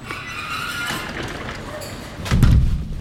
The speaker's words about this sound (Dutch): Dus even binnen in de fabriek kijken? Ja. Dan... Rol, roldeur weer dicht? Ja.